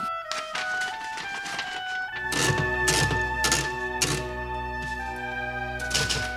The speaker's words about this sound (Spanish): En su oficina en la editorial, Robbie Duarte terminó de tipear una entrevista. Luego pone en la máquina de escribir una hoja en blanco.